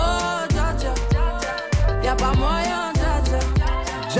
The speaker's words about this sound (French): Premier tube planétaire